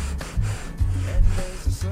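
Quick, shallow panting breaths repeat in a steady rhythm, about five short huffs in two seconds, fairly loud with no talking, showing the very short, superficial breathing brought on by emotion.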